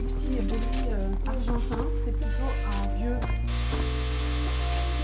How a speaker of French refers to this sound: Petite anecdote, quand je lui demande si je peux faire teinter la sonnette de sa maison, que j'imagine tout aussi charmante que les lieux, elle m'annonce tout de suite la couleur.